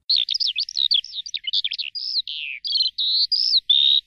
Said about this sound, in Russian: И песню раннюю запел В лазуре жаворонок звонкий. Он голосисто с вышины Поет на солнышке, сверкая.